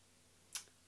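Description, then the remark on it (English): A dog named Peppy makes a sharp, brief click, followed by a fainter second tick, against a quiet, still background with no talking. “That's the dog.”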